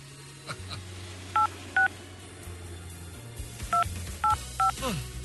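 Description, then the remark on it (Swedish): A phone number is keyed in as a series of short, bright two-tone touch-tone beeps, five presses in an uneven rhythm over a low background hum. “Man vill ju inte slå fel här. Det är så många telefonnummer på den här lappen.”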